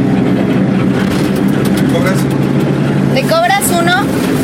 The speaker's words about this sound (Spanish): No hay tráfico, no hay ruido, hasta que el mal olor del canal anuncia que terminamos de bajar el cerro y cruzamos de Chimalhuacán a Ciudad Neza, el paraíso de los autos, del tráfico, del smog, del claxon.